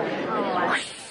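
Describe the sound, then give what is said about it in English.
A man imitates with his voice a hissing sound he heard, like a Fourth of July rocket: a breathy, steady hiss lasting about a second, rising slightly in pitch near the end before fading. “I heard a hissing sound like this.”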